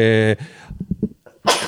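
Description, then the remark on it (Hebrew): A single sneeze: a drawn-in, voiced gasp, a few soft catching breaths, then a sharp, breathy burst at the end. “לבריאות.”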